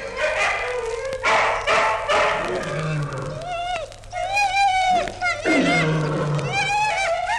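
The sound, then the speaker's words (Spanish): A pack of about a hundred hungry dogs growling and snarling together at night as they gnaw fresh meat, with teeth gnawing and tongues lapping; a dense, continuous mix of rising and falling growls and whines with no pauses. “De noche, en la oscuridad, de cien perros a la vez se oía el roer de los dientes, el gruñido de gusto, el ruido de las lenguas.”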